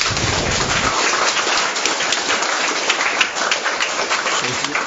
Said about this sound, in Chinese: 好，掌声再热烈一点。